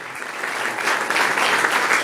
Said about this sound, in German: Und Bodentruppen sind erst recht tabu. Dafür gibt es Beifall.